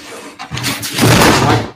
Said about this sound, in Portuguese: Desculpe aí o barulho, tá? Foi a, a cortina que caiu aqui.